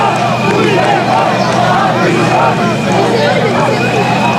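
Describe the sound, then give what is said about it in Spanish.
A large crowd in Spain shouts and jeers at head of government Sánchez on his arrival and departure, chanting "¡A prisión!", many voices overlapping in a loud, continuous roar that barely lets up over a few seconds. “ha contrastado, digo, esos, esos gritos contra Sánchez con los vítores y aplausos a los reyes”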